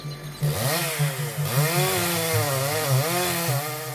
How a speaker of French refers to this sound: Il faut le couper, à la tronçonneuse, puis à la pioche pour les racines.